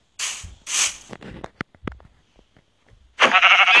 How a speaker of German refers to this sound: Oh, ein Schaf, wichtig.